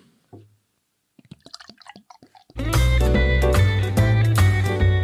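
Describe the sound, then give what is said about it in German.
A Kellerpils beer from the Först brewery in Drügendorf is poured into a glass in short glugs and splashes for a couple of seconds, then loud music abruptly starts and drowns everything out. “Und ich würde sagen, während ich einschenke, können wir auch gleich mit der nächsten Kategorie starten.”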